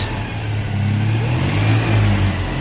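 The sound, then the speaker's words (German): A car engine revs up and down while idling in neutral, the driver having failed to find first gear, a steady mid-pitched drone swelling and easing over a couple of seconds, fairly loud with no voices. “Oder fährt der, drückt doch einen Leerlauf. Ja, das ist Leerlauf.”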